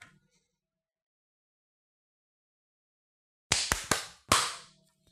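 Several seconds of silence, then a group claps together on cue at 55 seconds by the time.is clock: a quick, loud burst of about four sharp, slightly ragged hand claps with no talking.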